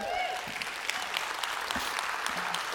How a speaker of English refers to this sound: Those are all the people that show up on time that are clapping right there.